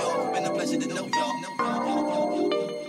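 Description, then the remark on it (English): A phone ringtone sounds in short electronic bursts, cutting through a man's rhythmic, half-sung vocals over a steady musical backing. “excuse me, that's a phone call.”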